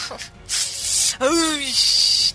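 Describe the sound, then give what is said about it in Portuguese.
Someone imitates a spray can of paint with their voice: steady hissing bursts, broken briefly by a short falling vocal tone before the hiss resumes. “… fez vários sons aí, muitas onomatopeias”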